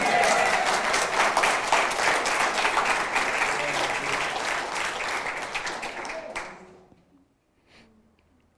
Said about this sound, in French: Une bonne main d'applaudissement Jésus.